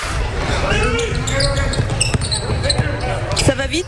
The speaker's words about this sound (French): ça joue fort. C'est trop beau le basket